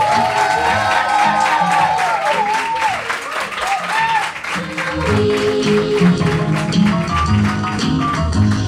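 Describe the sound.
An audience claps steadily and loudly for about nine seconds, a dense, continuous patter of many hands with a few voices whooping and cheering through it.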